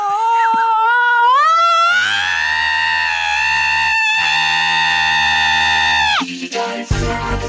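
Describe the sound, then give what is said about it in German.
A shrill, piercing scream used as an alarm swoops upward and then holds loud and steady for about six seconds before cutting off abruptly, leaving a brief burst of noisy clatter. “Richtig, und wir lassen uns genau von diesem Schrei jetzt aus der Folge rausschreien”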